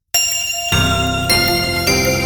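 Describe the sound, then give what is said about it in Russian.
A small bell dings four times in quick succession, each bright metallic strike ringing out and overlapping the last, loud with no voices. “Ставьте лайки, звоните в колокольчик и подписывайтесь на наш канал.”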